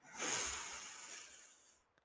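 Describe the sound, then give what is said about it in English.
A long, deep inhale through the nose during a guided breathing meditation, close to the microphone, with a soft airy hiss that swells quickly and then tapers over about two seconds. No talking. “Deep breath in through your nose.”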